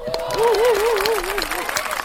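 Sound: studio audience applause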